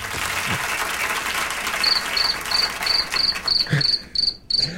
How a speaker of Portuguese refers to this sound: Põe grilo.